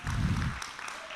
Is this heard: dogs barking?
no